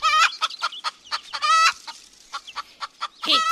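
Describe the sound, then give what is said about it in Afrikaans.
A hen clucks in a quick, uneven series of short throaty notes, with a few longer drawn-out squawks mixed in, as she looks around near grain kernels lying on the ground. No voices are heard. “Die hen kyk rond om te sien wie se dit is.”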